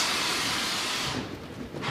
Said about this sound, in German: gibt Lehrer Dietmar Tellichmann seinem Assistenten das Kommando, das Feuerwerk am Sattel per Fernsteuerung zu zünden